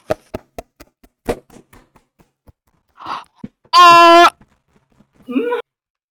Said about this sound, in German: Ich glaube, das hat man selbst nach unten gehört, wie ich gerade auf meinen Tisch geklopft habe, Digga.